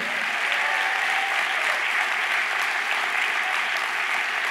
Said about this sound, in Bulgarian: Ако имам такива приятели, трябва да ръкопляскаш по-силно.